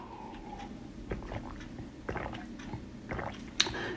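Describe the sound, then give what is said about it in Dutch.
Wet mouth sounds of someone sipping water: soft slurps and swallows at an uneven pace, ending with a sharp little click. No one speaks. “Ik pak trouwens even een slokje water tussendoor.”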